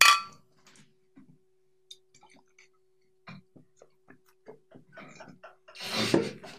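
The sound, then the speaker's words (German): Wine glasses clink together in a toast to SPD chancellor candidate Martin Schulz: a bright ring at the start, scattered light taps and clinks, then a louder, fuller clatter near the end, with no one talking. “Ja, wir erheben ein Glas unseres besten Weines, würde ich mal sagen.”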